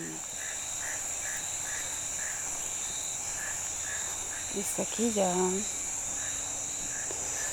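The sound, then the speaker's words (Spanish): A steady nighttime chorus of insects trilling at high pitch, with regular pulsed frog calls repeating throughout; a man speaks briefly over it partway through. “Y no quedan sino insectos y ranas.”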